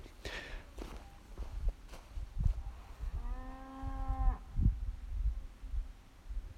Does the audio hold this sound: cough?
no